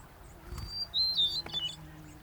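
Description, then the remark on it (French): A bird sings a few thin, high whistled phrases in a quiet forest, fairly faint, with short gaps between the notes and a soft low rumble of ambience underneath. “À cette époque de l'année, les chants des oiseaux se font plus rares, plus dilués dans le temps, plus hésitants aussi.”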